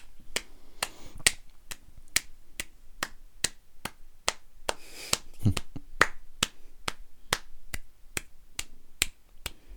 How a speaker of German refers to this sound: Könnt ihr bitte alle an dieser Stelle klatschen? Ja. Egal, wo ihr sitzt. Fangt einfach an zu klatschen dafür. Einfach so, los. Ich klatsche es auch für dich, ja?